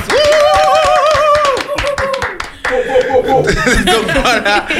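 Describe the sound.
A crowd claps in a dense, continuous burst, mixed with high whoops, cheering voices and some laughter; it stays loud for about five seconds with a brief dip midway. The audience at an evening gathering is applauding the sound technician.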